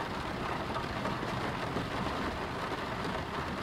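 Steady rain falls continuously late at night, heard from inside a home, a dense even hiss of countless drops with a soft low rumble beneath, no voices, holding at a constant moderate level throughout.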